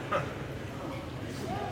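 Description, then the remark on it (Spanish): A dog gives a short, sharp bark near the start, then keeps up softer yips over a steady background with faint voices. “La mía está ladre y ladre”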